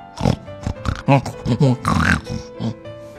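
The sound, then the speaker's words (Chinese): A person imitates the piglet Polly with a quick, uneven run of about seven nasal oinks and grunts, some rising into higher squeals, fairly loud and with no other sounds. “小猪波利也跟着叫。”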